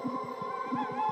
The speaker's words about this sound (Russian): Вот кричат совы.